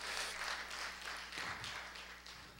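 An audience claps for the Lord at a morning service, a dense, steady burst of applause that lasts the whole stretch, easing slightly toward the end, with no one speaking over it.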